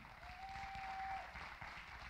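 An audience claps together in a steady, dense patter of many hands, holding at an even level for a couple of seconds, with a faint sustained tone running through the first half.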